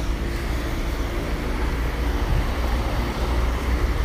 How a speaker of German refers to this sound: Und hier wird fleißig gebaut. Überall Bauarbeiter, ratternde Motoren und Geräusche. Die Autos stauen sich und manche Fahrer wirken richtig genervt.